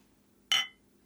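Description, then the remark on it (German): A single bright clink of glasses touching in a New Year's toast, fairly loud, ringing briefly before fading into quiet with no talking. “Lass uns mal kurz anstoßen.”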